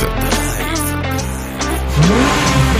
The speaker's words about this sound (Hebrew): אבל שום דבר לא יתחיל לפני שיהיה לנו פתיח. דרייב.